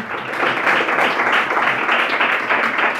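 A church audience applauds at a vigil, offering the applause to the Lord: many hands clapping together in a dense, continuous wash of sound that stays loud and even for the whole stretch, with no voices rising above it.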